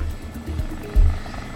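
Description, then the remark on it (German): A helicopter tilts as it is flown into a volcano crater, its low, throbbing rotor drone filling the short stretch, steady, swelling into a louder, heavier pulse about halfway through before settling back to its rumble. “wie sich der Hubschrauber neigt, als Craig ihn in den Krater fliegt”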